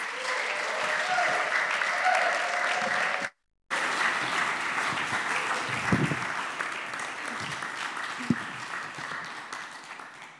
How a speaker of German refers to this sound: geben ihr einmal einen riesengroßen Applaus.